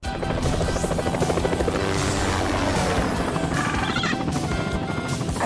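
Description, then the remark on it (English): A helicopter's rotor thumps loudly and steadily throughout in a Liberty Mutual car insurance advert, a dense rapid chopping with engine whine layered on top, continuous, with no speech. “What do you say we see what this bird can do? Woo! We are not getting you a helicopter.”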